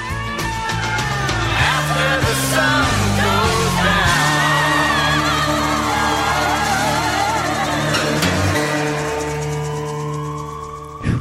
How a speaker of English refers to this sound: Police siren in the back.